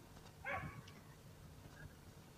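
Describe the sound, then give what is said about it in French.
A person imitates a dog with one short, loud bark, followed by a much fainter yelp a moment later, against a quiet background. “Je double l'anglais et euh, l'aboiement canin, mais seulement l'aboiement canin francophone.”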